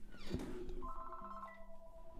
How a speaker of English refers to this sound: Phone. Sorry, just a second.